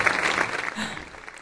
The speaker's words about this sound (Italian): Un applauso per me.